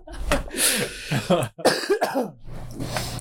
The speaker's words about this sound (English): Oh, sorry, man. I've had this. I've been stopped up, man. I had this wicked cough for a few days. Um, might be the Wuhan wheeze.